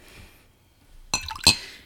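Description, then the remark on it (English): Two sharp, bright clinks of glass or metal a moment apart, fairly loud, as cocktail ingredients (blended scotch, single malt scotch, honey ginger simple syrup, lemon juice) go into a cocktail shaker, after a quiet stretch with faint background hiss and no talking. “Throw it into a cocktail shaker.”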